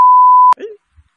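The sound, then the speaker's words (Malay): A loud, steady censor bleep tone lasts about half a second, cutting off sharply, followed by a brief fragment of a voice and a faint low thump. “Mana ya, kau sensor benda ni?”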